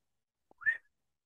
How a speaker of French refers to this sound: Ça, ça rend vachement bien de siffler en podcast en plus. Quelle, chic idée.